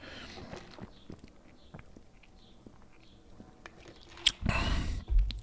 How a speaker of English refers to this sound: Well, hold on. Let me let me get an iced coffee sip here. Probably the last thing I need, but let's do it.